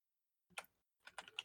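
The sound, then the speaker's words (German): Quick, crisp clicks of typing on a computer keyboard: a short burst of key taps, a brief pause, then another cluster of bright clacks. Faint overall, with no voices. “da, klingt, da klingt schon die Tastatur.”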